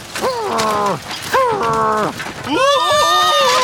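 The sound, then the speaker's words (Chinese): A wooden house, the second little pig's, groans and creaks as it is blown down and collapses: three long, strained, tonal creaks with sliding pitch, the last one higher and wavering, fairly loud with no talk over them. “猪老二的木头房子也被吹倒了，”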